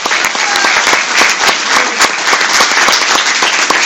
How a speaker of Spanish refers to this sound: Dale un aplauso al Señor.